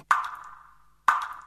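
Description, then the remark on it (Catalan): Water dripping from a leaking car radiator: two clear, ringing drops about a second apart, each with a bright plink that slowly fades, with no talking. “Un radiador de cotxe que perd aigua, així.”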